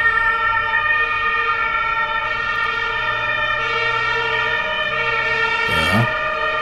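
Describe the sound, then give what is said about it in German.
A loud emergency vehicle siren blares in a city, holding a steady, harmonically rich tone throughout before a brief rising sweep near the end as it passes by. “Tatütata, willkommen in der Stadt. Lass wir mal vorbeifahren, ne?”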